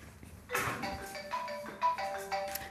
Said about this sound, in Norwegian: Nå ringer han tilbake og har mye på hjertet.